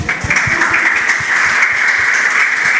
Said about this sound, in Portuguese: Alguém nos visita pela primeira vez? Olha lá, vamos aplaudir os irmãos.